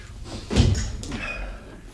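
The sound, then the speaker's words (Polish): The door to a general director's office swings and shuts with a solid thud, followed by a brief faint squeak and some soft rattling as it settles. No one speaks. “Proszę, tu jest sekretariat, a te drzwi to gabinet głównego dyrektora.”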